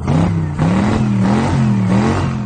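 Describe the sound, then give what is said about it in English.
A car engine revs hard several times in quick succession, the pitch climbing and dropping with each push of the throttle, loud and close with no voices. “That's the sound of my car already getting on the road to go see that.”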